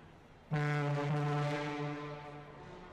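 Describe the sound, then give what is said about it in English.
A troop ship's horn at Bremerhaven, the port of embarkation, sounds one long, loud, steady blast, deep and resonant with a rich stack of tones, starting abruptly and slowly fading toward the end. “the sound of your troop ship's horn and a welcoming Army brass band, the great adventure began.”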